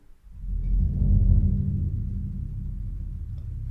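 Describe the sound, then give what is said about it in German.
A deep, sustained roll on a large bass drum swells up within the first second and keeps rumbling steadily low and heavy, imitating rolling thunder, with no voices over it. “Da kann man natürlich ein Gewitter nachmachen, zum Beispiel, wenn man so einen Wirbel spielt.”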